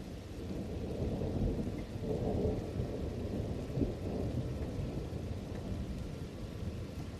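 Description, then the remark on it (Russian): Steady rain pours down on a cold autumn evening while deep thunder rumbles low and continuously underneath, a dense, unbroken storm sound with no voices. “Весь день шел дождь, поэтому Гоша ничего не хотел делать и только спал.”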